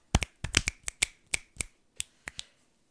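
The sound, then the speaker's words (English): Around a dozen sharp, crisp hand claps in an uneven, loosely grouped rhythm, some coming in quick pairs, with brief quiet gaps between and no talking. “claps, and I, just I like that.”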